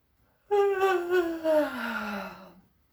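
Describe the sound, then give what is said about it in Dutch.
A single long, voiced yawn, starting higher and sliding steadily down in pitch into a drawn-out moan over about two seconds, with nothing else around it. “Het gapen.”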